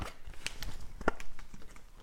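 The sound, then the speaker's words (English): Orange juice pours steadily over ice cubes in a glass, filled to just over half, a soft continuous trickle broken by a couple of sharp, bright clinks of ice against the glass. Fairly quiet throughout, with no talking. “I'm going to go for just over half a glass. You can hear there's some ice cubes in there as well.”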